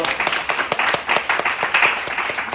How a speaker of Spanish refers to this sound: Sin duda, agradecerles un aplauso por este hermoso